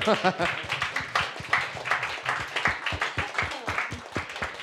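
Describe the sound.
An audience claps after a song is performed, a steady patter of sharp, overlapping hand claps at moderate loudness, with a voice briefly talking at the very start.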